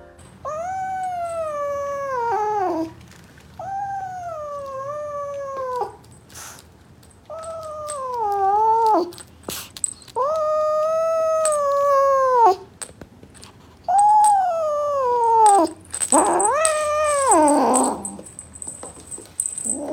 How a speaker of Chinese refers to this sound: 橘子咬着逗猫棒那是叫不放的，而且还很凶很凶的样子。你们看一下以下这个片段就知道了。